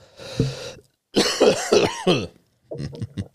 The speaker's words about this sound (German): Ich kann original husten. Original? es ist wichtig, dass man dann original kann. Das ist ein richtiger Husten.